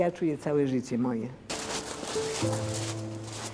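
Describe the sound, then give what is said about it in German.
A voice speaks briefly, then a dense burst of audience applause breaks out and keeps going, a steady crackling wash of many hands with a voice or sustained tone continuing over it. “Die Tatsache, dass sie reagieren, indem sie klatschen, zeugt davon, dass sie tief im Herzen das gefühlt haben, was ich mein ganzes Leben auf Erden im Herzen rumtrage.”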